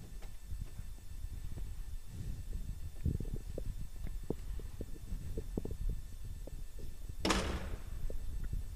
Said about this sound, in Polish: Otwieram drzwi.